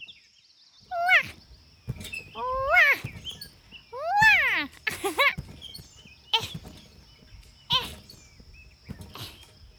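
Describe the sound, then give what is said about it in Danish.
Someone bounces on a trampoline: springy thumps land roughly once a second, several joined by squeaky, wobbling tones, with no talking over them. “Der er der vist nogen, der hopper på trampolin.”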